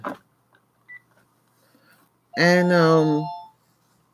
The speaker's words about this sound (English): sorry about that. Sorry about that. The phone always rings when we talk, right?